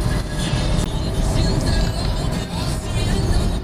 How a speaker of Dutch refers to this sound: Ja, zitten we dan weer in de auto, jongens.